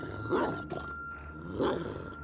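A dog named Brandon barks aggressively twice, two harsh snarling bursts separated by a short pause, moderately loud, with no talking over them.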